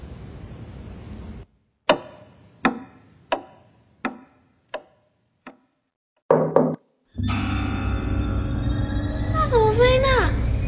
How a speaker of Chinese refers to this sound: 在敲门吗？什么东西啦？他是要进来吗？